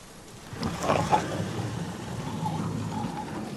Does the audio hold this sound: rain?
yes